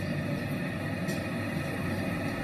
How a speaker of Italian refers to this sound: Abbiamo aperto la finestra su New York. Siamo in mezzo praticamente al traffico pieno di taxi gialli, freni che stridono, persone che parlano